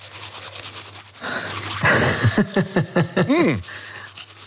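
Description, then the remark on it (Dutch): Teeth being brushed with a toothbrush: steady, moderately loud scrubbing strokes in a quick back-and-forth rhythm, with a few muffled vocal sounds mixed in partway through. “Maar ik poets nu eigenlijk fout.”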